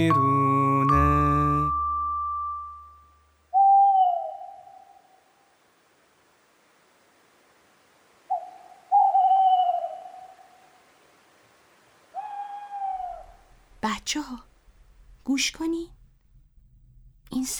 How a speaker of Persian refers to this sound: صدا از کجاست؟ اوه این صدای جغده بچه ها